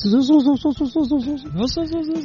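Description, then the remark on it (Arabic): A fairly loud voice imitates the whistle from the air-conditioning compressor of a 2014 Toyota FJ, heard when the AC is switched on, with quick, repeated rising-and-falling whiny tones, ending in a longer steady drawn-out note. “عندك اف جي تويوتا 2014 يقول فيها صوت بالكمبرسر لكنه يبرد ما في مشكله بس في صوت قل لنا الصوت كيف هل الصوت صفير في بعض الاحيان يكون الصوت لما تشغل المكيف صوت الصفير هذا اللي”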